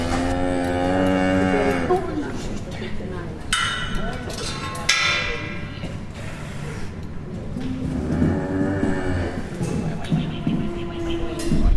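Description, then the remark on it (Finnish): Breeding bulls used for artificial-insemination semen production in Finland low calmly: several deep, drawn-out moos rise and fall in pitch, one near the start and more toward the end, with faint clanks and rustling between them. “Mä ajattelin, että sieltä kuuluisi ihan karseen mölinä, mutta nämä on hyvin sivistyneitä poikia.”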